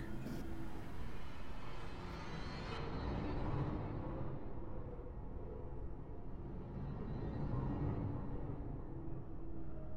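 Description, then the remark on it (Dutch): A car engine rumbles steadily at low volume as the car is driven away up a mountain as it begins to get light, a continuous drone of road and motor noise with no voices, its brighter tones thinning out as the vehicle seems to move off. “ik ga de berg op, ik, ga, ik pak mijn auto en ik kachel weg.”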